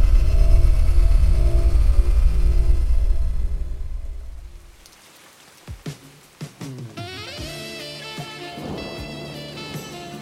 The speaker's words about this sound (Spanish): Está lloviendo